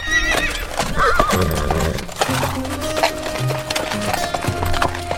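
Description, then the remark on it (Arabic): Horses whinny loudly over a steady clatter of hooves clip-clopping on a hard surface, the neighs rising and falling with no talking. “سنسمع اليوم أجمل الأصوات في العالم صوت صهيل الخيول التي تسابق الريح وتوقظ داخلنا صوت الحرية”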